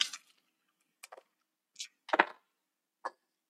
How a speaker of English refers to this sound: That's weird. I think I rolled the exact same two dice. I rolled a 16 and an 11, which plus 6, so 22 okay.